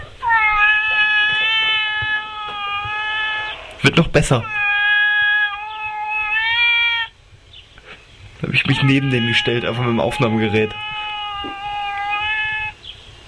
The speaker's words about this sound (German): Ich habe aber gerade einen Mitschnitt gefunden, wie der verliebte Kater von meiner Schwester seine Freundin anhimmelt. Das müsste man sich auch mal anhören.